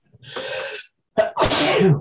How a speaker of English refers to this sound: Sorry, I'm thinking I got sneeze coming on.